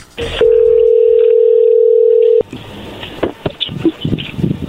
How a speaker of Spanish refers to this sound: A ver, ahí se está marcando.